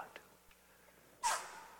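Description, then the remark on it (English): A single sharp sneeze bursts out after a moment of near silence, loud and abrupt, then trails off into a brief breathy tail. “God bless you, Okay.”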